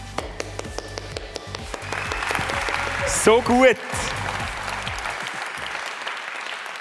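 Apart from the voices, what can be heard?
standing audience applause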